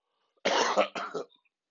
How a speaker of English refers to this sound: this ain't no corona cough, y'all. Excuse me. You just making me cough. oh my god, I'm choking right now.